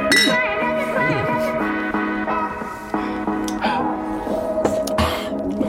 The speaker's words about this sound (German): Ich muss mich ja mit mir selber anstoßen.